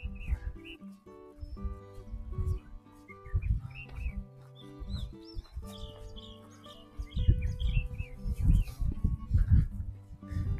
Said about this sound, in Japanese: 一応ですね、あの、マイ、ピンマイクで話してるんですが、あの、ウィンドガー、ウィンドガード、モフモフじゃない。スポンジをつけてるんで、多分、風の音は入ってないと思うんですけど、鳥の声は聞こえると思うんですよね。